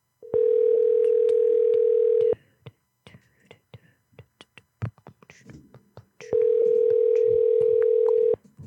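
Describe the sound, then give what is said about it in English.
A telephone ringback tone purrs twice, each steady hum lasting about two seconds with a long pause between, while someone murmurs quietly in the gap. “All right, we're going to get somebody to pick up here.”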